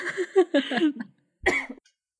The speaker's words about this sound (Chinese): 你还好吗？ 哦，还好。哎、欸，我刚刚没有关麦克风啊，我想说我咳嗽，我关一下。